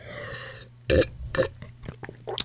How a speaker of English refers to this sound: I just slurped on my podcast. Uh, wow. oh, what was in that confetti?